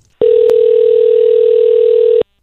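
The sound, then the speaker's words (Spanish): A single steady telephone ringing tone on an outgoing call to an old cell phone number, one continuous electronic burst lasting about two seconds, loud and narrow like it's heard through a phone line, with no voices. “Vamos a llamar al teléfono viejo mío a ver quién tiene el teléfono ahora para fastidiar.”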